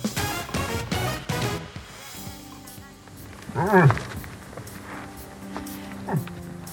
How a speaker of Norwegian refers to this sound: Dette er lyden av en elg.